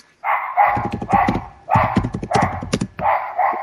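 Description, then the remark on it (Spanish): A dog barks loudly in a rapid run of repeated barks, about six sharp bursts with short gaps between them, with no talking over it. “Disculpen gente por el perro que está ladrando,”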